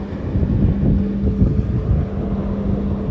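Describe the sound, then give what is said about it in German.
Steady, loud wind rushes over the microphone with a dense low roar of sea waves at the shore beneath it, continuous, with no voices. “Für das Meer.”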